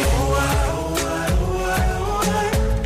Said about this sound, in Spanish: Y así suena la supuesta parte plagiada de …